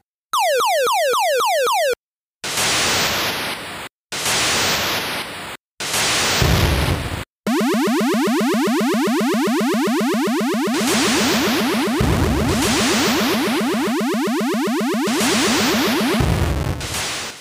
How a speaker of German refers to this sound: schon, wenn ein Satellit reinfliegt oder ein Bomber, hört man dieses uiuiuiui, die ganz furchtbare Geräusch, was man auch vielleicht von Space Invaders kennt, wenn ein UFO reinfliegt. Hat ein ähnliches Geräusch. Kann man ja hier mal einspielen.